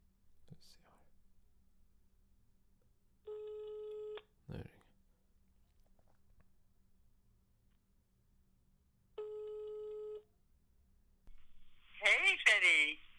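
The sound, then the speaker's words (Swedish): Two long electronic ringback tones on a phone line as someone calls their mother, separated by a pause, each steady and clear; a brief click between them, faint whispering early on, and a voice answering at the end. “Jag ska ringa till min mamma.”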